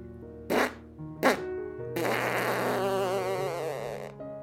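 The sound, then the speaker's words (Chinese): Two quick sputtering bursts, then a longer wobbling, gurgling stretch like a fart blown underwater into bubbles, from a young frog character farting in a large pool in a children's story, all set over a soft, steady musical backing with no talking. “这天，皮皮在水池里放屁。”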